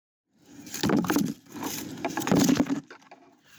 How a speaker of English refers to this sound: That's the sound of broad bean pods landing in my bucket as I harvest my overwintered crop of broad beans. They've been in the ground since October, but now it's time for them to go.